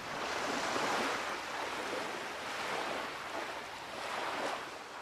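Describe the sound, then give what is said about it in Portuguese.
Ocean waves wash onto a beach and draw back in a steady, continuous surge, the broad hiss swelling and easing every second or so, with no voices. “escuta as ondas a aproximarem-se da praia.”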